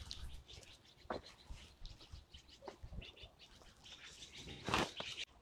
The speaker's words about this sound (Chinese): 喜鹊从我头顶上飞过，还有乌鸦。